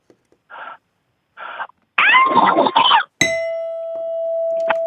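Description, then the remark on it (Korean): A caller on Park Myung-soo's radio show mimics the call of an archaeopteryx from the Cretaceous with two short squawks and then a longer, harsh, raspy screech, loud, cut off by a bright, sustained electronic chime. “아, 그 마지막으로 시조새 한번 하겠습니다.”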